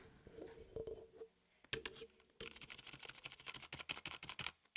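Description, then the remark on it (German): Rapid typing on the regular keys of a computer keyboard, not yet the space bar, during a sound check: a steady stream of sharp plastic key clicks that starts sparse and grows into dense, fast tapping, with a faint tonal hum early on. “Drück erstmal die normalen Tasten, drück noch nicht die Leertaste oder so.”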